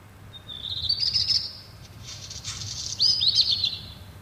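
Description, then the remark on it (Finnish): A black redstart sings alone: a short rattling, high-pitched warble, then a scratchy crackling phrase, then another bright trill, over a low steady background rumble. “Viikon luontoääni: Mustaleppälintu”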